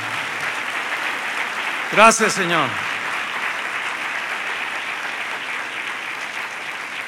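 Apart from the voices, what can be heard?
audience applause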